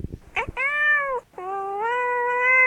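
A cat named Gato Mayo meows loudly, two long drawn-out, wavering meows in a row after a brief rustle, the second stretching out and rising slightly in pitch.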